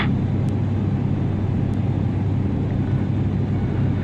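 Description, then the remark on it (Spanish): A steady, loud roar of airplane engines drones on continuously as the planes make a turn and prepare to dive on the enemy, a dense low rumble with no clear rise or fall, with no voices. “Atención, hacemos ahora un giro con nuestros aviones y nos disponemos a lanzarnos sobre el enemigo.”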